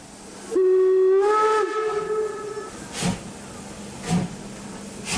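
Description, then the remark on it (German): The last scheduled-service steam locomotive, decorated with a green garland, sounds its whistle in one sustained, slightly wavering blast of about two seconds, followed by rhythmic hissing steam chuffs with a low mechanical hum. “Die Lok war mit so einer grünen Girlande geschmückt und das hat jeder Eisenbahner hat das gesehen, hat die Wunken, es wurde gepfiffen.”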